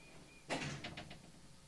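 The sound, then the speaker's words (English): A large door is pushed shut with a broad rumbling thud, followed by a few quick rattling knocks as it settles. It is fairly quiet, with no voices. “I closed the big door.”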